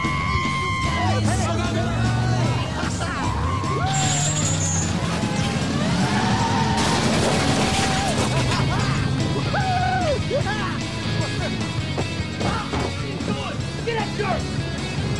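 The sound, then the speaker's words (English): Loud banging and crashing blows against a car's metal body, causing thousands of dollars in damage, with a chaotic burst of smashing in the middle, while people shout and yell excitedly around it. “… causes thousands of dollars in damage to their car.”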